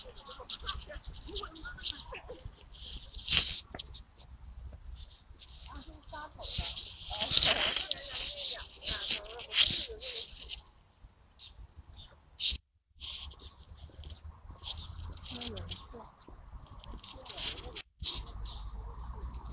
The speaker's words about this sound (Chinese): 你听，这肯定是中头鸦雀的声音。